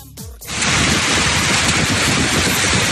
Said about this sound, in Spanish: Eso que suena son bolas de granizo que tienen el tamaño de bolas de billar.